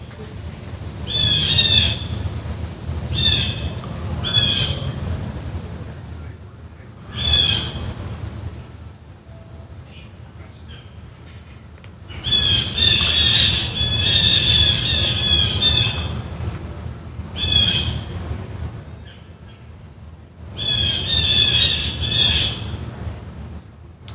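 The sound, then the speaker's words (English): Harsh, loud bird squawks erupt in repeated bursts overhead, with short pauses between noisy clusters of calls; no talking is heard, just the raucous birds. “Those birds are losing it up there.”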